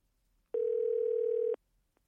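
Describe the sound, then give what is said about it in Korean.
A single steady electronic tone of a phone line ringing out as a radio host calls a listener, who does not answer, holding for about a second at a fixed mid pitch before cutting off, with quiet background before and after and no talking. “예, 전화 한번 걸어서 한번 좀 이야기를 좀 나눠볼게요.”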